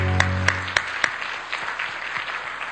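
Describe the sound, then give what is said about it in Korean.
A crowd applauds together at a church worship service, giving thanks to God, with a few sharp, evenly spaced claps standing out at first, then a steady wash of clapping that gradually softens. A low sustained tone briefly sounds beneath. “하나님께 감사 박수 드리겠습니다.”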